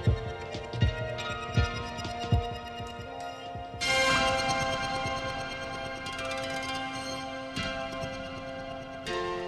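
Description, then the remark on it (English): A sustained synth tone from the Atom run into the Monsoon, smeared in a strange, fluttering, glitchy reverb, with stuttering bursts and shimmering high-end washes that swell midway and hang on steadily, no voices present. “I'm also running the Atom into the Monsoon, and that's where we're getting that really weird, fluttery, glitchy sounding reverb on that.”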